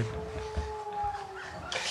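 A wolf howls in one long, steady, drawn-out note that dips slightly in pitch, heard alone over a faint noisy background before a brief hiss at the end.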